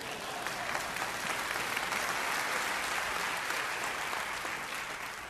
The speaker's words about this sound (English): You, one person clapping right over here. Thank you.